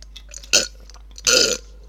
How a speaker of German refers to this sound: Trink ich doch mal ins Mikro rein. Klingt so ein bisschen ekelhaft.